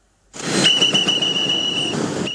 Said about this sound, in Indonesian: Suara peluit mustari memekik setiap ada kendaraan masuk untuk parkir. Sudah sekitar 15 tahun, ia menjadi juru parkir di kawasan Jalan Veteran Utara, Kota Makassar, Sulawesi Selatan.